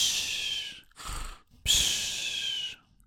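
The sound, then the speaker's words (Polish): A voice imitates heavy breathing by someone with a microphone held in their mouth during an online voice chat: a long hissing exhale, a short sharp inhale, then another loud breathy exhale, harsh and right up against the mic. “Wyjmij to mikro z dupy, bo słychać jak sapiesz”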